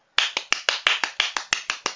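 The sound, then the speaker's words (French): Brisk, steady hand clapping by a person at a window at 7:59 pm, about eleven sharp claps in quick even rhythm, each a crisp bright smack with a short decay, with no voices. “Je me mets à la fenêtre et j'applaudis.”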